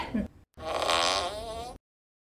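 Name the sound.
fart sound effect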